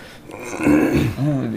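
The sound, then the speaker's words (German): A voice imitates a fart with its mouth: two short, low, buzzy bursts with wobbling pitch, fairly loud, one after the other with no speech around them. “Der Furz ist ja nicht das, was das Geräusch macht. Der Furz ist der Applaus des Arsches.”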